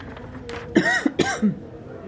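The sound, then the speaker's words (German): A couple of short, rough coughs followed by a throaty clearing sound, fairly loud, each burst abrupt and separated by brief pauses. “Jetzt muss ich gleich husten.”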